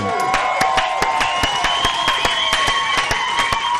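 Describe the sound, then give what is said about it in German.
A small crowd in a pub claps steadily with sharp, irregular hand claps, while whistling and excited cheering voices rise over the noise throughout. “Ein Applaus”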